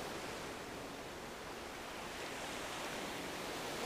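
A steady, continuous wash of ocean surf, waves breaking on shore with a broad hiss that swells slightly louder toward the end, with no voices.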